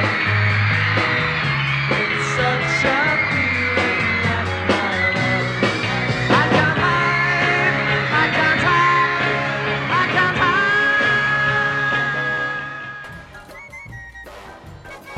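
A crowd screams nonstop over a live concert performance. The loud, dense shrieking blends with guitars and drums throughout, then drops off in the last couple of seconds.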